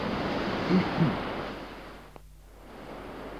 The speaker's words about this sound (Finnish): mutta hän mahtaa sitten liikkua oikein vanhan Imatran kanta-asukkaan mielessä, kun hän Sunnuntai-kävelyllään ylittää kosken ja katselee hetken sen vapaana myllertäviä kuohuja.